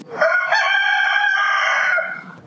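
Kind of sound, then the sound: bird, rooster crowing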